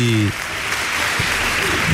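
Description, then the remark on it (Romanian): Steady applause from a crowd for everyone involved in a project, a dense wash of many hands clapping at once, with a brief bit of a voice cutting off at the start. “Încă o dată aplauze tuturor celor uh, implicați în acest uh, proiect”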